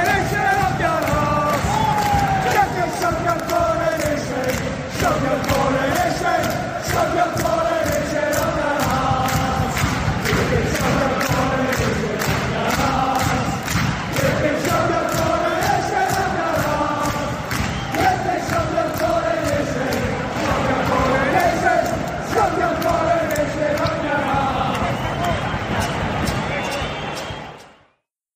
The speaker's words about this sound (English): And that was the crowd at a football game between Celtic and Glasgow Rangers in Scotland. And they were just letting King Charles what they know about this whole coronation business.